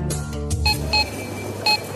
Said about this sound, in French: Ça, pour certains, c'est l'épicerie pour une semaine. Trois bips.